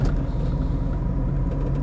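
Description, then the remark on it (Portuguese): A moving car's steady, heavy low rumble fills the cabin, constant, with a faint loose rattling from the trunk mixed in; no one speaks. “Meu carro tá fazendo um barulho no porta-mala que não é de hoje, velho.”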